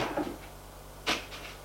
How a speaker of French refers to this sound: Il va vers le bureau. Ouvre un tiroir. Ouvre un tiroir